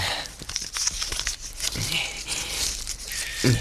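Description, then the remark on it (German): Crisp crinkling and rustling of a small piece of paper, found inside a metal foil on a dead pigeon's leg, being unfolded, a steady run of light crackles and soft tearing-like rasps with a couple of sharper snaps near the end. “Aha, da steckt ein Stückchen Papier drin.”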